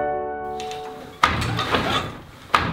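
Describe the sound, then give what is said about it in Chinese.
An old-style hand-operated wooden loom weaving cloth, its threads crossed and pressed tightly together: two sharp, heavy wooden thunks about a second apart, with scraping and rattling between them, after a brief steady tone at the start. “乖乖，这是织布的声音。”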